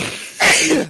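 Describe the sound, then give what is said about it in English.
A single loud sneeze: a brief breathy intake followed by a sudden explosive burst that fades out, with no talking around it. “God bless you, by the way.”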